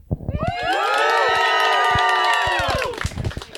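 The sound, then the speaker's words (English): A live audience, asked to cheer really loudly and quickly, erupts in loud, sustained cheering and shouting for about two and a half seconds, with many overlapping voices whooping at once before it quickly dies down. “If everybody could just cheer really loudly, really quick.”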